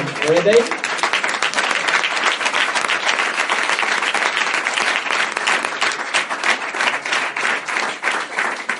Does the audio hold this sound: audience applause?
yes